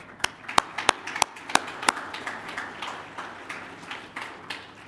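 An audience applauds the teachers of the education program at Oldham Lane: a handful of sharp, loud individual claps ring out first, then settle into a softer, steady patter of many hands clapping together.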